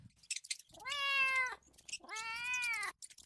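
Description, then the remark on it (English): A marmalade cat meows twice, each call long, loud and drawn out, with a short pause between them and no talking. “So the next day, she went to the pet shop and bought a marmalade cat and took it home.”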